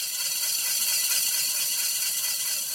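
A diamond core drill, a cylindrical bit with a diamond-coated tip, grinds steadily as it cuts apart a crystal, giving a continuous bright, hissing whine with a faint rattling texture underneath, unbroken for the whole stretch and with no voices.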